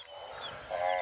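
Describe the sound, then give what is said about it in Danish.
Wildebeest grunting on the savanna amid a dense, breathy background, with a louder, buzzy nasal grunt rising near the end of the short stretch, as if several animals are calling. “Gnuer”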